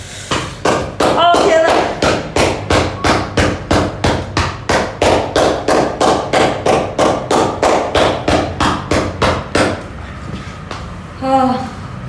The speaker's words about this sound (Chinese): 今天都在放烟火哎。